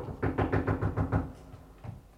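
A quick run of six dull, muffled knocks on wood from inside a coffin, evenly spaced, then a short pause and one last knock. No voices, just the hollow rapping.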